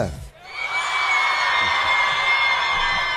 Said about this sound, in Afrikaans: Waar is hy ouetjie wat nee skree? Ek hoor vir hom daarso. Waar is hy?